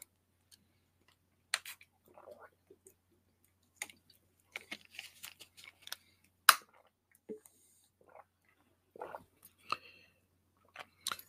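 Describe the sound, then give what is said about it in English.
Quiet sips of water with small slurps, soft mouth clicks and a swallow or two, plus light taps like a cup being lifted and set down. No one speaks. “Um, first and foremost, let me um take care of the uh let me take care of the little sip of water for a second.”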